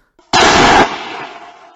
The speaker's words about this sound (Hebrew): וזה לא סתם, כי, כי הוא באמת נתן את נשמתו, הוא נורה על ידי שוטרים. נכון, מה ששמענו זה ירייה,